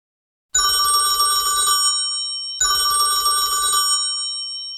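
A telephone bell rings in two long bursts separated by a short pause, loud, with a bright, rattling metallic tone and no voices.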